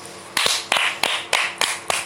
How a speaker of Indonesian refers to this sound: kenapa tepuk tangan siapa yang ulang tahun